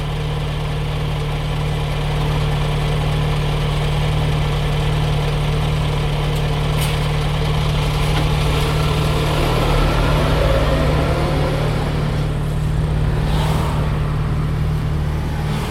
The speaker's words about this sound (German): So, das letzte Geräusch ist ein LKW, der neben mir an der Ampel steht. Ich hoffe, ihr versteht trotzdem genug von dem, was ich sage.